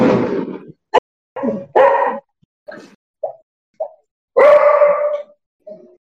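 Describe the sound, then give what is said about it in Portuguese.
A dog barks repeatedly, a series of loud, irregular barks and shorter yips with brief pauses between them, plus a sharp click near the start; the dog is nervous because people are making noise in the street during a football match. “O pessoal tá fazendo zoada na rua, o cachorro fica nervoso.”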